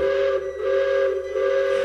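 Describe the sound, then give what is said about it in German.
A steam locomotive whistle at Germany's largest amusement park, on a locomotive run electrically since 2019, sounds in a steady, sustained chord, loud and piercing, dipping briefly in volume twice before swelling again, with no voices present. “Da fährt eine Dampflok, die seit 2019 aber aus ökologischen Gründen elektronisch betrieben wird.”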